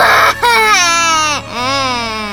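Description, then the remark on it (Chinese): Loud, high-pitched wailing sobs come in two long drawn-out bursts with a brief catch of breath between. A human voice imitates a baby crocodile bawling. “他嚎啕大哭，哭了又哭，哭得比丛林里的所有动物宝宝都还要久，还要大声。”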